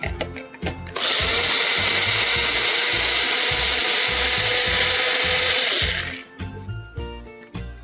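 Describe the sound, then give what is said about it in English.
A mixer grinder blends coconut chutney from grated fresh coconut, lemon juice and a little water, running loudly for about five seconds: a steady high-pitched motor roar over uneven low thumping as the contents churn, starting and stopping abruptly between bursts of clattering. “So now that we have all the ingredients in this, we're going to mix it nicely and make it into a chutney.”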